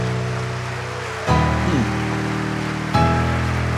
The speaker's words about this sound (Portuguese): E agora um lindo aplauso em nome de Jesus.